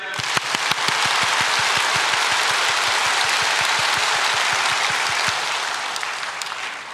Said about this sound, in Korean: 자, 20번 박수를 쳐보겠습니다. 시작!